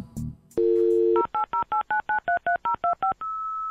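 On a telephone, a brief click, then a steady dial tone followed by a quick run of about eleven evenly spaced touch-tone beeps, ending in a sustained single tone; clear, with no talking.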